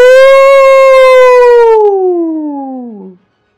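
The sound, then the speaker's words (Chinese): A wolf's howl: one long, loud, steady tone that slowly glides down in pitch over about three seconds before cutting off abruptly, with no talking. “大野狼低声吼着，露出又尖又长的牙齿，眼睛闪出凶狠的绿光”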